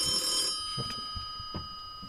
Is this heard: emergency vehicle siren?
no